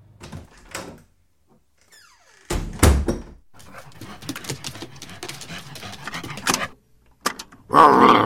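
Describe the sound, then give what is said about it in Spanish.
A dog named Sirio whimpers and whines in thin, high-pitched bursts, broken by short pauses and a few louder thuds and scuffles, with no one speaking. “Perro molesto, por Dios.”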